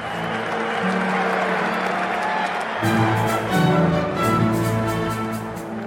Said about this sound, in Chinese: 台下观众终于看到要演奏安可曲了，掌声更加热烈，甚至欢呼了起来。